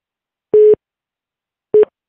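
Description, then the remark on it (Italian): Two electronic telephone busy-signal beeps as a radio host tries to put a caller through, steady single-pitch tones each lasting a fraction of a second with a pause between, clear and fairly loud with no talking. “Ma non so come fare entrare questa persona che sta cercando di entrare perché sento un tu tu tu.”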